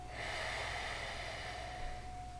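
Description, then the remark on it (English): A single long, forceful exhale, a steady rush of breath pushed out for about two seconds, fairly loud, with no talking over it. “pushing in and up to put it out.”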